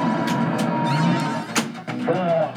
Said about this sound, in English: And so what you're hearing is the Doctor Who pinball machine that was made by Bally, uh, released in September of 1992.